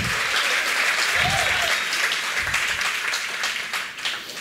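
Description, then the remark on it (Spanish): A crowd applauds God steadily for several seconds, a dense, loud wash of many hands clapping with faint voices and cheers mixed in, tapering slightly toward the end. “Diga conmigo un fuerte amén y déle un fuerte aplauso a Dios.”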